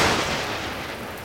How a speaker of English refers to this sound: We's in for a squall. Best take shoulder up yonder.